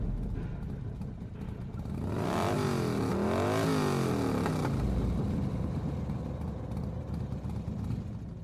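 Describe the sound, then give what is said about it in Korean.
A motorcycle engine revs loudly outside a building, its pitch rising and falling through a couple of throttle surges, then settles into a steady idle rumble with faint background noise. “어떻게 해보지도 못한 채 마냥 문만 잡고 흔들고 있을 때 밖에서 시끄러운 오토바이 소리가 들려왔다.”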